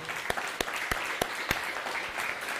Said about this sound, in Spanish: Ah, que se escuche fuerte ese aplauso, parece que no desayunó, hombre.